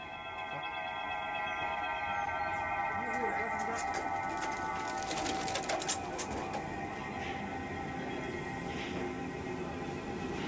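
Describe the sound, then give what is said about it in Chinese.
Pigeon whistles in the hutongs of Beijing fill the air with a steady, layered chord of airy, sustained tones, humming without pause for the whole stretch, with faint scattered clicks and rustles underneath. “在那期节目的环境音中，我们加入了北京胡同里鸽子哨的声音”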